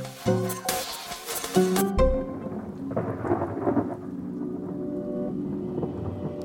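A thunderstorm: a deep rumble of thunder breaks in early, then steady rain hisses on with continued low rumbling. Tonal, music-like sounds precede it at the very start, and no one speaks.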